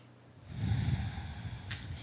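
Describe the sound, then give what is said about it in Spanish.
One long, deep breath, fairly loud, rushing in after a brief quiet start and holding steady for over a second with a slightly snorting, nasal texture. “Y aceptando esta actitud, esta conciencia, esta actividad de luz, tomamos una profunda respiración.”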